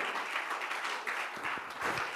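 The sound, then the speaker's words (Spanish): An audience applauds steadily, a dense wash of many hands clapping at an even, sustained level with no voices standing out. “Al nombre del Señor sea toda la gloria y si ese aplauso es para Él, hermano, bríndeselo con celebración y júbilo.”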